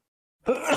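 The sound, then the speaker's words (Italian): A single sudden sneeze bursts out after a moment of silence, fairly loud, with a sharp breathy onset and a short voiced tail. “Era, era, lo starnuto della fine del podcast.”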